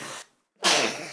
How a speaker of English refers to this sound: Whoa, that was a sneeze. I think I want to keep that in.